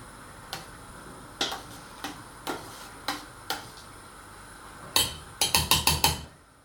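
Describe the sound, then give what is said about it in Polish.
Stew being stirred in a bogracz cauldron: a spoon knocks against the pot in sharp, evenly spaced clicks, then a quicker burst of five or six louder clanks near the end. No talking. “Bogracz sobie powolutku pyka. Przemieszam tu troszeczkę.”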